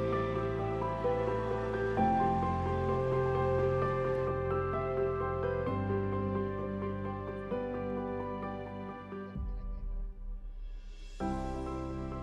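Loud, steady audience applause, a dense crackling clatter of many hands clapping, sustained throughout under sweeping music with held chords that change every few seconds.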